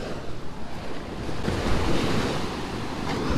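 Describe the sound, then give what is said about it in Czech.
Ocean surf washes steadily onto the shore in a dense, continuous roar, swelling slightly midway, with gusty wind buffeting the microphone throughout. No voices. “U toho moře je to vždycky hezký.”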